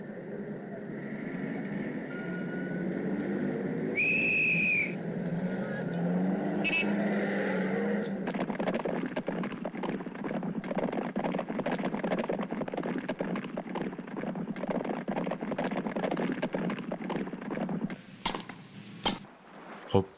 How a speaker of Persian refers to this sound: شما صدای فیلمی را میشنوید که در اواخر دهه پنجاه میلادی هلندی ها به سفارش شرکت نفت ایران در آبادان ساختند.